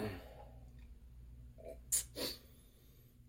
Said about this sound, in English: Uh, let me take another sip. Let me reach over and grab that.